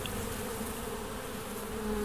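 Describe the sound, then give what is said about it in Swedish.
Honeybees buzz at a hive in hot weather above 30 degrees while the beekeeper empties the queen's introduction cage of attendant bees; a steady, dense drone, a low hum with a faint higher whine that holds constant and fairly loud throughout, with no speech. “Jag tömmer tillsättningsburen med drottningen i på följebin.”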